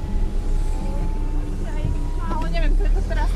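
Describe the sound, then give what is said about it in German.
A car drives into a new housing development with a steady, low engine rumble filling the background, while a person talks over it during the second half. “Ihr Auto steuern sie in ein Neubaugebiet.”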